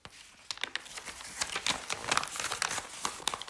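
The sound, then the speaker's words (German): Wrapping paper crinkles and rustles in a steady flurry of sharp, papery crackles over a few seconds while a gift is wrapped, with no voices. “Okay, the first one ähm, ist fast eingepackt.”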